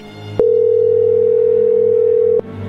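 A steady, loud telephone tone as a call connects, holding a single pitch for about two seconds, starting and stopping abruptly, with faint background hum before and after.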